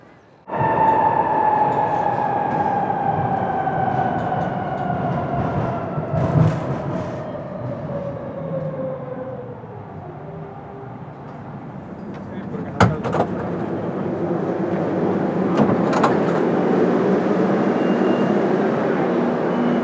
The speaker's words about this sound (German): Das war die Fahrt mit der U-Bahn.